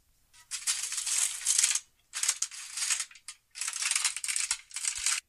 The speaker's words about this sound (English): Okay, here's aluminium foil.